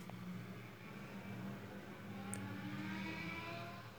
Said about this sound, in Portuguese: Então tá tendo aí essas motos, ó.